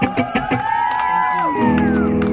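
A crowd cheers for a performer at the end of a Drink More Water presents the Artist Series show, with whoops and high whistling cries and a few sharp claps at the start, then the voices settle into a sustained, droning roar of approval.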